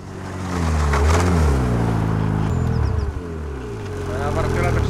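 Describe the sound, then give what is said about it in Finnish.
Snowmobile engines drone and rev past at the Näränperä dam in Tornio, their pitch rising and falling in steady harmonic bands, loud throughout with a brief dip midway as one machine passes and another follows. “Tuolla moottorikelkkailijat näköjään ajaa”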